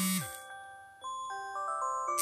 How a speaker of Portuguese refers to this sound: Meu Deus, do nada, no meio do podcast, meu alarme tá disparando. Pronto, desliguei. Eu não vou editar isso de novo, então vocês vão ouvir o meu alarme disparando